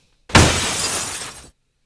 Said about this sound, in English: Hear that sound? Sound. Uh, uh do that sound again. It's like glass breaking. That's what it sounds like when this dude falls to the floor, man.